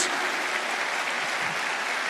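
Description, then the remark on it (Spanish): A church audience claps for Jesus during a sermon in a dense, steady wash of applause that holds at an even level for a couple of seconds, with no voices standing out. “Se va a aplaudir, aplauda con todo su corazón a Jesús.”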